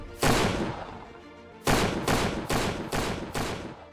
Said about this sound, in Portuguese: E só se escutam disparos.